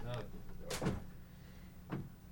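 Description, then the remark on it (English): A door opens with a short clunk and rattle as someone walks in, followed a second later by a softer click, over a low steady room hum with a brief murmur of voice at the start. “should I get the door? If you want to, she just walked in.”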